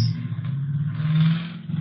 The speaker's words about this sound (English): Oh, uh, someone in the neighborhood revving their truck engine.